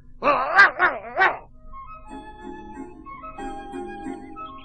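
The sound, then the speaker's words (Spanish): Three quick, loud dog barks in a row, followed by a soft, steady musical background with no further barking. “Desde detrás de unos rosales escuchaban la conversación del perro y del gato, unos conejitos que se decían entre sí.”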